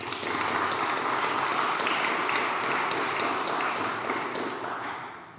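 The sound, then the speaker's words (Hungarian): An audience at a debate of opposition candidates for Budapest's 18th constituency applauds the Momentum candidate with a dense, steady wash of clapping that holds evenly for about five seconds, then tapers off at the end. No one speaks over it. “és itt van velünk a Momentum jelöltje is, nagy tapsot szeretnék kérni neki.”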